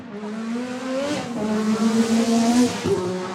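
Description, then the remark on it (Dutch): A Formula 1 race car engine roars at high revs, its pitch climbing steadily as it accelerates, loud, with a brief dip near the end before rising again. No one speaks. “Moderne raceteams, zoals die van Max Verstappen, willen luchtweerstand niet alleen verminderen, maar ook slim gebruiken”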